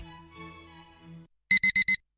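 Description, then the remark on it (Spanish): An alarm clock goes off with four quick, shrill, loud electronic beeps in a tight row, following a brief stretch of soft tonal sound, in a radio advert for the Seat León hybrid. “Pasarse al Seat León híbrido con Seat Flex es tan fácil como posponer la alarma.”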